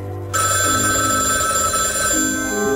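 A telephone bell in a hospital starts ringing abruptly after a brief quiet moment and keeps up a loud, continuous metallic trill, with low sustained tones humming underneath.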